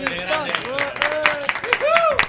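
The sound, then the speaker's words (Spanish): A burst of lively applause in a radio studio: many hands clapping in a steady, dense patter, with voices whooping and cheering over it throughout. “Un, un aplaudiment de ràdio, un aplaudiment de ràdio.”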